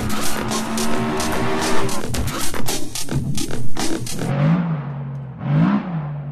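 A Porsche sports car engine revs hard with a rough, throaty roar, then gives two sharp rising blips of the throttle that fall away, loud, with no voices.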